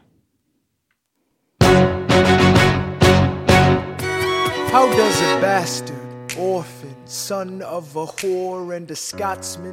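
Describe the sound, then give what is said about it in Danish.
After a second and a half of silence, a musical theatre song starts loudly with punchy rhythmic snaps and chords, then a man's voice delivers rhythmic sung lines over the full backing. “Og i dag er vi jo nået til altså nok en af de største musicals i vores tid.”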